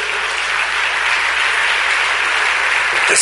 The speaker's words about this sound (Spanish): Démosle ese aplauso al Señor si quiere